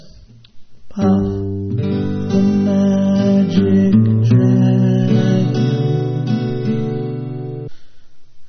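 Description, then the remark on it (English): Acoustic guitar chords strummed clearly, moving from a G chord to B minor partway through, with the open A string note ringing to link them. A single spoken word comes just before the playing. “Now, the other thing that's very, very cool is because if I use this particular thing, or the full bar, I can use that little A note, the open A string, to get from G to the B of the B minor or B minor 7.”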